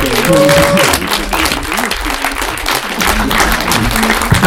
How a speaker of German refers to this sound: Vielleicht können wir mal einen fetten Applaus machen. Danke.